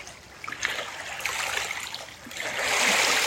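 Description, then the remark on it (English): Water rushes and burbles steadily over stones in a stream in the morning, a continuous bright hiss with small splashing trickles that swells a little louder toward the end. “Water, the beautiful teacher of fluidity, of adaptability, of strength through persistence.”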